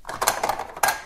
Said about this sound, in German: Das ist das Geräusch von Kaffee machen.